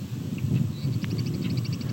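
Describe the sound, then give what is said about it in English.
A Savannah sparrow sings a thin, high series of rapid, evenly spaced notes, rather faint over a steady low rumble of background noise. “No, that's a Savannah sparrow.”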